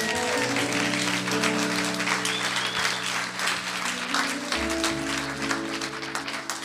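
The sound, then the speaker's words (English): An audience claps steadily, a dense wash of many hands continuing throughout, over sustained low organ-like musical tones that shift partway through. “can you lead us in a clap?”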